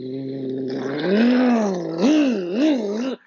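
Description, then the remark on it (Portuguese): A voice imitates a revving motorcycle engine, a steady buzzing drone that rises and then wavers up and down in pitch over about three seconds, fairly loud, with no other sounds. “Isto é um som de moto, não é um som de, de carro.”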